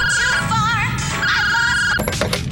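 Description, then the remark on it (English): A phone ringtone plays loudly, a warbling, wavering electronic tone over a low rumble, followed near the end by a few quick thuds. No one speaks. “Of course they changed the ringtone to the worst sound ever.”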